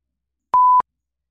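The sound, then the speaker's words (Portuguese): A single short electronic beep like an alarm clock, a steady high tone lasting about a quarter second, clear, with silence before and after and no voices. “O despertador toca e você.”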